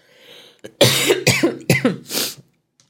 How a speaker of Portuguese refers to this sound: Espera que eu vou tossir por causa da pipoca.